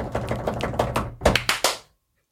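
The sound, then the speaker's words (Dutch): A quick drumroll announcing number 4 on a ranked list, the film The Favourite, tapped out in rapid, uneven knocks for under two seconds, building to a few louder final hits before stopping abruptly, with a low hum underneath and no voices. “Ehm, op nummer 4 mag ik een roffel.”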